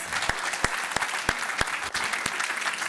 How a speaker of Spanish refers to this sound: No, ahora sí, déle ese fuerte Now aplauso. give him that strong applause.